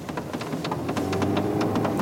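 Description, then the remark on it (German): Water drips steadily onto a car roof as the car drives into a safety tunnel through damp limestone formations, a dense patter of sharp, irregular taps over a low rumbling hum, with no voices. “Bald schon nach der Einfahrt in den Sicherheitsstollen tropft das Wasser aufs Autodach.”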